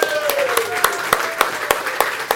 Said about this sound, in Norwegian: Det er veldig bra. Jeg syns det fortjener en stor applaus!